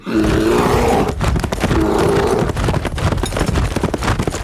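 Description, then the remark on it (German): Loud, rapid hoofbeats of a galloping camel ridden by Laura, a steady drumming rhythm of thuds over a continuous roaring rush of sound. “Laura, was machst du auf dem Kamel?”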